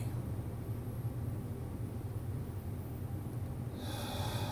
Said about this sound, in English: Let's focus on our breathing. And with each inspiration, I bring in joy.